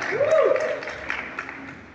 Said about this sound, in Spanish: ¿Alguien puede aplaudir? Ya tenemos ganadora. ¿Alguien puede, alguien puede aplaudir al Señor por eso? Ya tenemos ganadora.